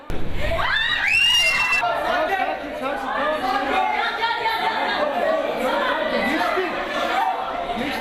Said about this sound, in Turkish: Bahçeli evlerde ise belediye başkanı Hakan Bahadır'ın bir okulu ziyareti sırasında kaydedildi bu görüntüler. Öğretmen çığlıkla sınıf dışına doğru hareket etti. Belediye başkanı sakinleştirmeye çalıştı. Öğrenciler ise sıraların altına girdi.